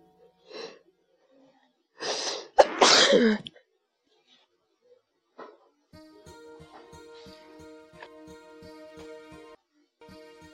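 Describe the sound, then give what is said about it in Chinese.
One loud, explosive sneeze comes right after a sharp breathy intake, preceded by a faint short breath. A steady buzzing tone with rapid, even pulses follows. “刚才我打了一个大喷嚏，嘿嘿。”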